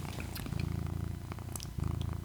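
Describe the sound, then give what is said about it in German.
A cat purrs steadily, a low rumbling drone with a soft rhythmic pulse, briefly pausing before resuming. No voices are heard. “Er schnurrt nur.”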